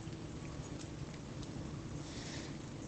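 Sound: rain falling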